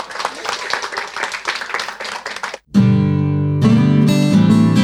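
Audience applause at a concert: a dense, steady patter of many hands clapping for about two and a half seconds, then a brief silence before loud, sustained music begins.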